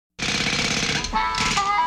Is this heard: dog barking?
no